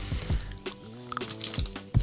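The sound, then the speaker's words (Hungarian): Someone chewing chocolate: a few soft, wet squishing bites with low thumps and faint clicks, irregular and fairly quiet, with no talking. “Odébb szólom, mert a saját rágásomat sem bírom.”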